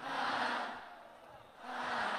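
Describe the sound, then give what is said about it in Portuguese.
A large crowd shouts a sustained, unified "ah" in two loud swells, the first fading briefly before the second rises again, with no clear individual voices. “Até lá atrás, eu quero ouvir.”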